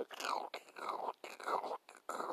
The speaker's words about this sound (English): If you're going to bring food along, try to bring the non crunchy kind because that will also show up on your recordings, your audio, and your video.